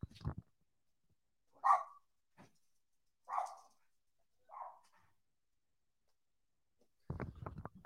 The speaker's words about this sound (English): Oh, those are my dogs. Let me let them out of the room.